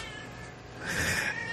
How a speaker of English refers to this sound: I don't know if you can hear my cat, but she's very chatty right now.